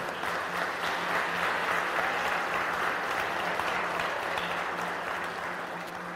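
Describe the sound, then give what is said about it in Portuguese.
Steady applause from a church audience clapping for the Lord for the children, a dense, even wash of clapping that holds at a consistent loud level for several seconds without breaks, with a faint low hum underneath. “Aplauda o Senhor pelas crianças aí, ó.”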